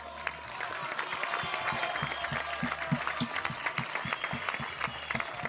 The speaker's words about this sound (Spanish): Gracias Horacio. Un aplauso para Horacio.